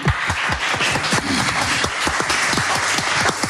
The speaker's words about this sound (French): On peut applaudir dans le public aussi.